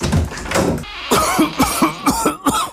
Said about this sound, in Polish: Nie chowaj się, niech kaszel się schowa.